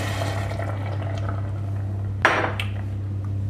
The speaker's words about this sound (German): Jetzt lösche ich das mit Gemüsebrühe. Beziehungsweise Hühnerbrühe ab. Oder Hühnerbrühe, genau. 250 Milliliter.